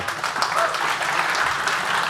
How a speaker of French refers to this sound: On applaudit, oui, mesdames, messieurs.